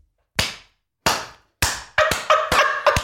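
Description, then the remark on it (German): A single person's hand claps: three slow, evenly spaced sharp claps, then a quicker run of several more, with no voices. “Applaus, Applaus, Mauerblümchen aus der 12a.”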